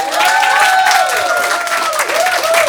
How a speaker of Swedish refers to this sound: Yes! Tack så mycket och en varm applåd till er själva. Ni är grymma som är här. Ni är bäst.